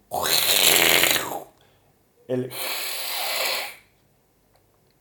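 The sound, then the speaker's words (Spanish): A voice imitates the aggressive growl or hiss cats make when attacking or defending themselves: two harsh, breathy bursts, the second starting with a rattling snarl, fairly loud, separated by a short pause. “¿Vieron esos ruidos que hacen los gatos, así cuando, los felinos más que los gatos, cuando, están así como que atacan o, o que se defienden, ¿no?”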